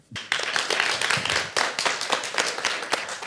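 An audience bursts into warm applause, a dense, steady wash of many hands clapping at once that carries on without pause, with a few sharper individual claps standing out.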